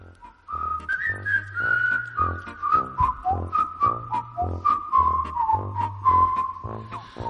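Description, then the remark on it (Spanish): Whistles sound to signal that it is time to leave: a bright, continuous whistled melody rises and falls over a steady, bass-heavy rhythmic backing, loud for several seconds with no voices. “Suenan los pitos porque nos tenemos que ir.”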